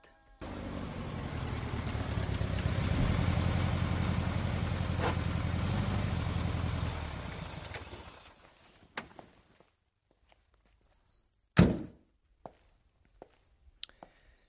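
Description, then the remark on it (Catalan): A car engine runs steadily, then cuts out into near silence before a single solid car door slam, followed by a few sparse, faint footsteps as a man walks along the completely deserted Gran Via in Madrid. “tanca la porta del cotxe, fa unes passes caminant, la Gran Via està completament deserta i es posa a córrer.”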